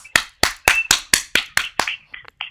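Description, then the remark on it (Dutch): Brief applause: about eight sharp, crisp hand claps in a steady, fairly quick rhythm, followed by a couple of short, higher-pitched sounds as the clapping stops. “Jongens, horen jullie dat? Yay! Applausje voor ons!”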